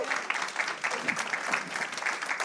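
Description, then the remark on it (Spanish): An audience applauds the Lord together, a steady mass of overlapping claps at moderate volume, with no voices standing out above it. “En un aplauso al Señor.”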